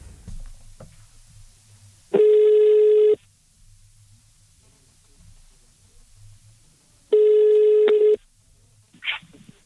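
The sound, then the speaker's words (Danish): A telephone ringback tone sounds twice as a call rings out to R2 Online Agency SRL in Bucharest, Romania, each a loud, steady one-second electronic beep separated by several seconds of quiet line hiss. “Og øh, der er et telefonnummer på dem, så man kan jo lige give det et skud.”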